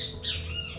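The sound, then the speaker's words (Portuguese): A sabiá thrush sings, with a brief run of clear, whistled notes and a gliding phrase, over a low, steady hum, and no one talks. “Gente, tem um passarinho cantando aqui, tá? Um sabiazinho, então vocês vão ouvir”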